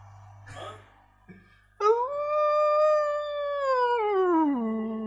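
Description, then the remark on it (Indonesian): A dog sound effect: a dog gives a brief bark, then launches into one long, loud howl that holds steady before sliding down in pitch and trailing off. No one speaks. “Eh, nyalain suara ini ya, anjing menggonggong gitu ya.”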